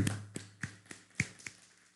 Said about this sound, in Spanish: Un fuerte aplauso.